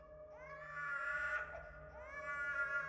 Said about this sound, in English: Her next door neighbor's infant son had been crying almost nonstop for the past two days.